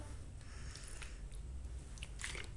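Someone drinks water from a plastic bottle, with quiet wet mouth sounds, soft squishing and a couple of brief gulps over a low steady hum. No one speaks.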